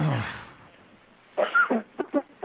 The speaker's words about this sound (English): Excuse me. I'm so so excited that I'm coughing.